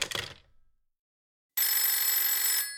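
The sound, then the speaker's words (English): A short clattering knock fades into silence, then a telephone bell rings loudly in a single sustained burst of about a second before cutting off. “Stop ringing me.”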